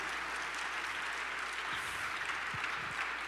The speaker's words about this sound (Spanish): Así que le damos gloria a Dios, damos un aplauso al Señor, porque hoy nos liberó, nos liberó en el nombre de Jesús.